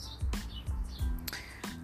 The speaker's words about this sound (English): And we're just gonna sit here and enjoy this nice breeze and the nice birds and the nature going on.